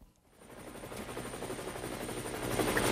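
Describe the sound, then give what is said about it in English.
A helicopter rotor sound effect fades in and builds, a rapid rhythmic chopping thud over a broad engine whine that grows louder toward the end, with no talking. “Coming to you live from 2,000 feet in the air, this is Car Force One, your friendly neighborhood traffic helicopter.”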